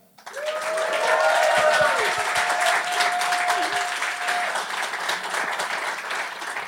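Warm applause for a co-host being introduced swells up quickly and holds steady, a dense wash of many hands clapping, with a faint sustained tone and some scattered crowd noise running beneath it.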